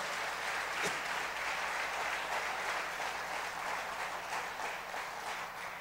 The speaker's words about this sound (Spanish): Den un buen aplauso ahora, dígale gracias, Señor.